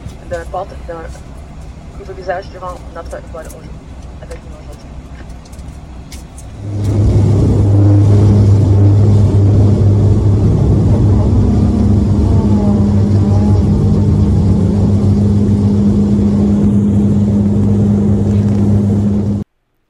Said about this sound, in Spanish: pues no iba a viajar en un avión de los grandes, como normalmente se hace, sino en estas como, como llamarlo, avioneticas pequeñas, donde no son de jet, sino son de hélice. Entonces también pareció curioso y por eso lo grabé un poquito.